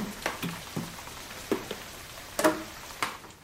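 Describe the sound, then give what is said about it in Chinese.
Irregular drips of rain leaking through a roof land one after another, sharp little plinks and taps spaced unevenly over a soft, hissing background with no voices. “滴答滴答，哎呀，屋顶漏雨了！”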